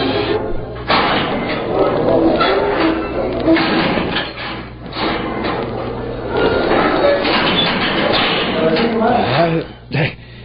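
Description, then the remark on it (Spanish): A heavy iron jail door creaks and grinds on its hinges with dull clanks and thuds, voices talking over the noise, ending in a final scraping creak. “Eh, fíjese, jefe, que a mí se me china el cuero cuando oigo rechinar esta puerta de hierro, hombre.”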